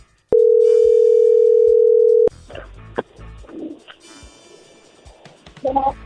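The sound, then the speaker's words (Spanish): A telephone line rings as a call goes through: one loud, steady, mid-pitched tone holds for about two seconds, then cuts to faint clicks, handling noise and muffled rustling, with no talking. “ahí se está marcando, vamos a ver qué sucede.”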